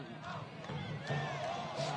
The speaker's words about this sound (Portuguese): Estão cantando Amaral é animal, a torcida au au Amaral é animal, legal.